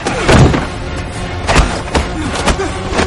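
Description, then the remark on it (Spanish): Punches landing in a fistfight between a captain and a North Korean soldier inside a building: four or five heavy, dull blows struck at an irregular pace, with scuffling and shuffling filling the gaps between hits. “Coge una silla y le golpea en la espalda. Intercambian puñetazos.”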